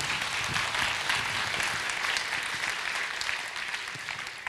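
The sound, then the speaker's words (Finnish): An audience applauds steadily, a dense wash of many hands clapping at a brisk, even pace, slightly tapering toward the end with no voices standing out. “Hei, aplodit juuri näin.”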